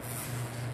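A steady mechanical drone of an old, worn-out electric fan running in hot weather in the north of São Paulo, Brazil, with a low motor hum and a constant airy whir, fairly quiet and unchanging throughout, with no voices.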